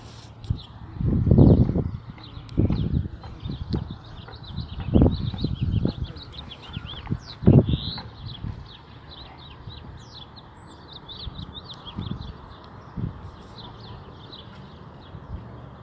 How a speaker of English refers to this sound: Sorry, I'm just walking by and there's some horses eating. So I just stopped by to watch the horses.